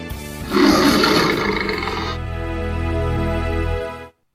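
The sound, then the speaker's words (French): Cleopatra's lion lets out one loud roar: a harsh, rasping burst that settles into a deep, rumbling growl before cutting off after about four seconds. No voices accompany it. “Le lion de Cléopâtre”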